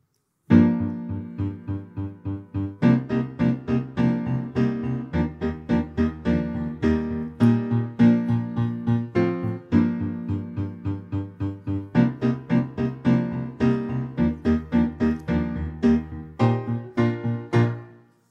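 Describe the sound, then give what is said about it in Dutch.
The second version of a pop song recording plays on its own, with steady pulsing chords and a bright, even beat throughout, clear and fairly loud with no talking over it. “En dan gaan we nu luisteren naar versie 2.”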